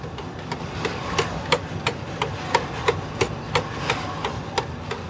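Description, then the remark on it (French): Sharp, evenly spaced clicks tick steadily, about three per second, from the turning mechanism of a flour mill over a low mechanical rumble. They are moderately loud, with no voices. “On entend un petit clic, clic, clic très régulier.”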